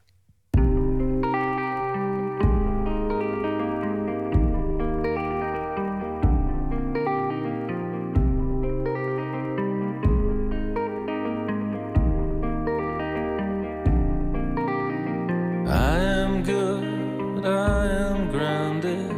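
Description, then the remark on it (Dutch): An indie rock song's instrumental opening: an effects-laden guitar repeats a steady chord pattern about every two and a half seconds, with a brighter, fuller layer joining near the end. No singing yet. “Laten we gaan luisteren naar hele andere muziek trouwens.”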